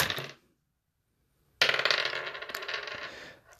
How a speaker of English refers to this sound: I am using these three wooden dice that I got out of a Christmas cracker. They roll terribly.